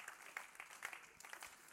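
An audience claps steadily in dense, overlapping applause that holds at an even level throughout, moderately quiet, with no voices standing out.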